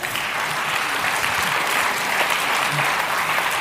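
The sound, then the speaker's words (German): Sustained audience applause thanking someone for sharing a short personal story, a dense, steady wash of many hands clapping at an even loudness throughout, with no voices standing out. “Ein Applaus nochmal.”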